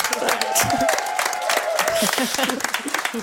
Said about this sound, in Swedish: Men hörni, det är en liten applåd från kollegorna, ja, eller hur?